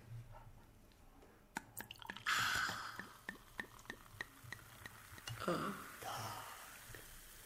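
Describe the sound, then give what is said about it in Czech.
Prosecco fizzing: a soft hissing rush of poured liquid, followed by a scattered run of sharp little pops and crackles and a second brief surge, all fairly quiet. “Hezky a to šumí tady.”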